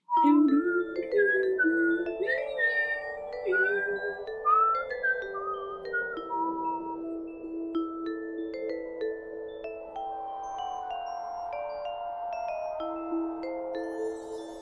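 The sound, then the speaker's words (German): Someone whistles a flowing melody, notes gliding up and down for about fifteen seconds, over a soft sustained lower tone, with no talking. “Aber in meinen Pfeifkünsten den ganzen Monat über gearbeitet.”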